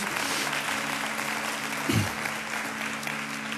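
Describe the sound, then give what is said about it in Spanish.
An audience applauds loudly for Jesus, steadily, in a dense, continuous wash of clapping, with a low hum running beneath and a brief thump near the middle. “Vamos, aplauda fuerte a Jesús.”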